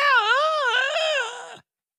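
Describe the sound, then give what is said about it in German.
A voice imitates a ghost's drawn-out, howling scream, rising and falling in pitch with a wavering tone before trailing off abruptly after about a second and a half. Loud, with no other sounds. “Dann ein heulender, langgezogener Schrei!”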